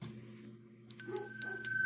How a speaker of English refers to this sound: Uh, I think it's time to ring that bell. It's last call.